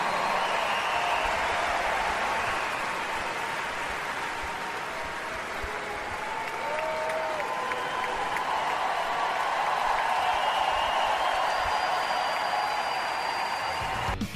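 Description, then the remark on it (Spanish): A tennis crowd gives a long ovation for David Ferrer as he says goodbye to Grand Slam play, a dense, steady roar of applause and cheering that holds at the same loud level for about fourteen seconds, with no one talking over it. “Ahí está la ovación eh, del público hacia David eh, Ferrer, que dice adiós de forma concreta a su participación en los Grand eh, Slams.”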